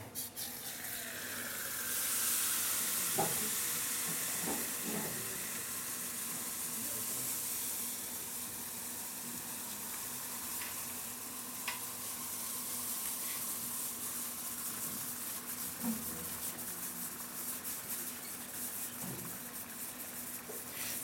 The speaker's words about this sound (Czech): Tak, tekutý dusík, má teplotu tady minus 196 stupňů. Samozřejmě vidíte, jak vaří, že jo, to bublá.